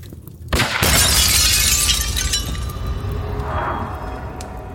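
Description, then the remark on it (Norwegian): After a brief hush, a window pane is suddenly shattered by a bullet with a loud crash, followed by several seconds of glass fragments tinkling and scattering as the noise slowly fades. “Ei kule knuser vinduet og suser inn i rommet.”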